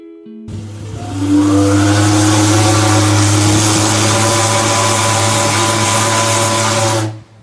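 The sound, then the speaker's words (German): A ship's horn, a sound well known in Hamburg, gives one long, loud, deep blast with a rich buzzing tone and a hiss of steam. It holds steady for about six seconds before stopping abruptly, with no talking. “In Hamburg haben die meisten diesen Sound natürlich schon öfter mal gehört und wissen sofort, um welches Schiff es geht.”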